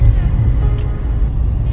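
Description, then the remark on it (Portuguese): A steady, heavy low rumble of traffic, road and engine noise fills the cabin of a moving car while the speaker records while driving, constant with no voices. “Então, esse barulhinho de, de, de, de trânsito e tal, eu vou gravando no carro para que eu possa aproveitar os horários para tocar a vida, né?”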